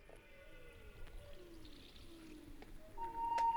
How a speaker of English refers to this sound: It starts with all this ambient, ambient like field recordings that we made. We wanted all the songs to merge into one. Mm. Um, so there's all, the, all these rainforest noises me rec- I went and I remember recording owls and things.